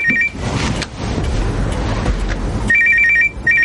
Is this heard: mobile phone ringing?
yes